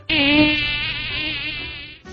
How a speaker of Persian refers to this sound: پشه اینو گفت و پرواز کرد و رفت و توفق ناپدید شد